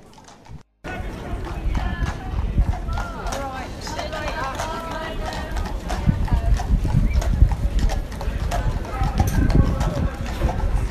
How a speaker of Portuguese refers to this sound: Cavalos passando, estamos na frente do Stamford Bridge.